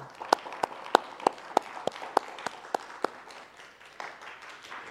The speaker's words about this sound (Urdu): آئیے خدا کے لیے زوردار تالیاں بجائیں